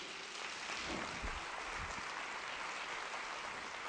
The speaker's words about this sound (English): Would you clap your hands and bless this man for me?